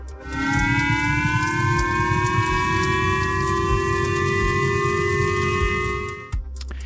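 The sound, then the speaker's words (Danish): A loud civil-defense warning siren wails in one long, steady tone that rises slightly in pitch, sustained for about six seconds before cutting off abruptly, with a low rumble underneath. It sounds early in the morning in Japan, warning of a missile fired from North Korea as people seek shelter. “Faren for at blive ramt af et missil får folk til at søge dækning, imens kører sirenerne i baggrunden.”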